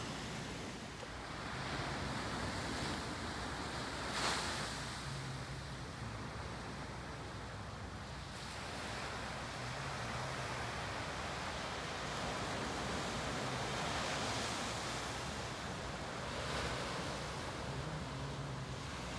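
Steady ocean surf washes onto a beach at Deerfield, Florida, a broad continuous rush with swells rising and falling every few seconds, mixed with gusty wind buffeting the microphone. No one speaks.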